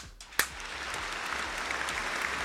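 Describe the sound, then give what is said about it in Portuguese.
A burst of applause: many hands clapping in a dense, steady crackle that starts with a sharp onset and holds at an even, moderate loudness throughout. “Palmas para ele.”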